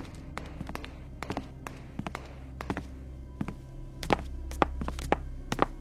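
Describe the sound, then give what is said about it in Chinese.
Footsteps following behind a man walking in an alley, coming closer: a run of sharp, hollow thuds in an uneven walking rhythm over a low steady hum, growing louder and heavier toward the end, with no talking. “又一阵脚步声响起，就在他身后，近了。”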